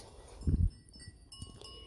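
Faint clinking of bells from grazing goats, scattered and irregular, with a brief low thump of movement and a quiet outdoor background.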